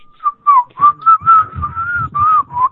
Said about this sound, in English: yeah, it basically sounds like a slide whistle. Yeah. At first it goes up, then it goes down.